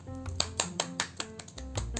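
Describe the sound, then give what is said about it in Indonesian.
Quick, uneven claps from a child's small hands, about eight of them over two seconds, light, with a low steady hum underneath and no talking. “Ore, tepuk tangan mana tepuk tangan?”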